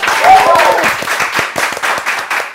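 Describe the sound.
A burst of studio applause welcoming former presidential candidate Ko Wen-je as a guest, many hands clapping in a dense, steady patter for a couple of seconds, with a brief cheering voice rising over it near the start.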